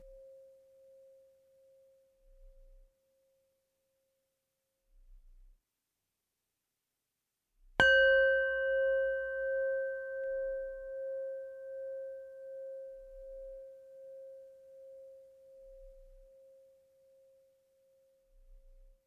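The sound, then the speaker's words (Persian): A Tibetan singing bowl is struck once, giving a bright metallic attack that settles into a long, shimmering ring and slowly fades; the faint tail of an earlier strike dies away beforehand. “شما فقط سعی بکنید که به صدای این کاسه تبتی توجه بکنید میخواین هر باری که این صدا اومد به اون به خوبی گوش بدین”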